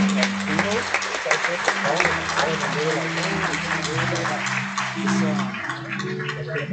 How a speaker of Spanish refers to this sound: Y denle un fuerte aplauso, hermanos, al Señor.